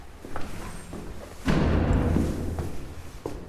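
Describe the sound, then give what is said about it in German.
A heavy door of a house with a grey facade a few steps from the Vltava (Moldau) opens with a sudden clunk, then a low, grinding rumble that drags on for about a second before fading, with a few faint knocks and a soft thump near the end. “Eine schwere Tür öffnet sich.”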